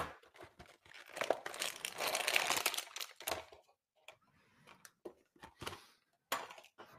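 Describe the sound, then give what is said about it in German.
Crinkling and rustling of plastic bags from a LEGO minifigure pack being handled and torn open, a dense burst of crackling for the first few seconds, then scattered shorter crinkles with brief pauses. “Ja, ich kämpfe mich gerade hier durch die Tüten.”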